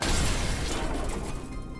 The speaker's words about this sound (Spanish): Mientras me dirigía a los árboles a las orillas de la propiedad, escuché cómo se rompió un vidrio tras de mí.